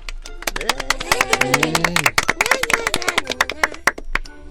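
A group of girls claps in quick, uneven bursts of loud, sharp slaps for several seconds, with a few high voices crying out over the applause.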